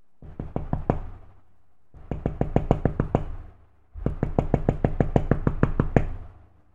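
Three bursts of rapid knocking from inside a wardrobe in a bedroom at 2:30 am, each a quick series of sharp raps lasting about a second or two, separated by short pauses, with a muffled, enclosed quality and no voices.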